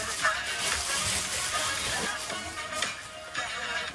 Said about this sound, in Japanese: えー、顔 技にめっちゃ入ってガサガサちょっと音しますけど。